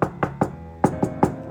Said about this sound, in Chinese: 第二天，我是被一阵急促的敲门声给吵醒的。